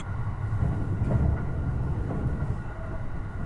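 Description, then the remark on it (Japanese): A limited express train from Shin-Osaka bound for Nanki-Shirahama runs steadily along its rails, a continuous low rumble with rhythmic rattling from the carriages, fairly loud throughout, with no voices. “新大阪から特急に乗る翔子ちゃんは天王寺から乗ってくることになっていた”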